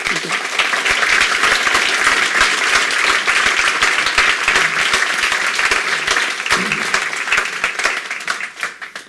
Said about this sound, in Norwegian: Og i den anledning har vi invitert psykolog Peder Kjøs fra Oslo til å komme hit. Applaus for Peder.